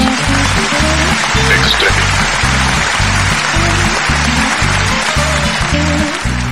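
A steady, upbeat guitar jingle with rhythmic strummed chords repeating evenly throughout, heard over a constant hissing, sizzling-like background noise. No one speaks.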